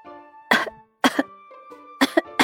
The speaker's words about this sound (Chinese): 波波来了，卷卷不停的在咳嗽，看起来很难受的样子。波波问道：“ 卷卷，你身体不舒服吗？” 卷卷告诉波波：“他最近感冒，喉咙发炎了，因为总是咳嗽，晚上也睡不着觉，很难受。”